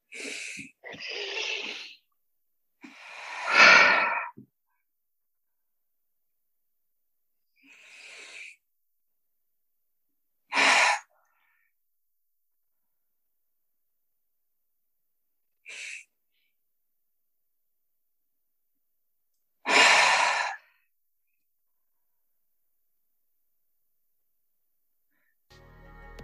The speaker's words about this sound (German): Also wir atmen normal ein, nicht tief ein, wir atmen normal ein und atmen aus und das machen wir noch zwei weitere Mal.